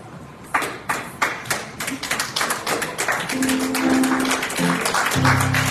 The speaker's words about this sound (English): So as I give these envelopes to them, will you all stand and give these men of God a hand clap of praise? Amen. Amen.